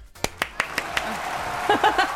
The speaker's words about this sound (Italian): applausi, grazie!